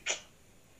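A single short, sharp sneeze bursts out at the start, fairly close and brief, followed by near silence with only faint background hiss.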